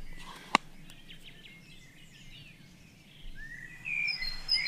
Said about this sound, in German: Wäre also die Kohlmeise. Die ähm, ein mehr ein Waldvogel ist, hier jetzt so nicht so typisch ist.